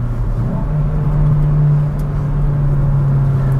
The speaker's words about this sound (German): Also der Sound ist schon wirklich herrlich. Das ist ein Vierzylindermotor, 1,6 Liter mit variablem Ventilhub und mit einem Turbolader. Und der hängt im Kühlkreislauf des Motors.